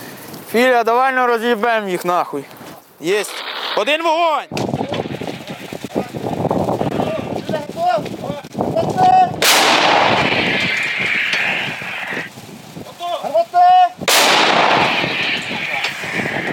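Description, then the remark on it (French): After a man speaks briefly, two powerful artillery blasts ring out several seconds apart as guns fire at Russian infantry on received coordinates, each a sharp, loud boom trailing into rumbling noise and shouting. “Le lieutenant vient de recevoir des coordonnées pour frapper l'ennemi.”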